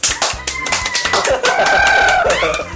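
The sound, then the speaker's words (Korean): A short burst of rapid, steady hand clapping from a few people, with a high, wavering vocal whoop or cheer rising over the clapping in the second half. “박수!”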